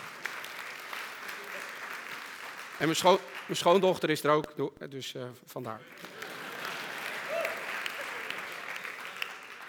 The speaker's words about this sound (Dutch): Ja, daar mag je best voor klappen. Ja.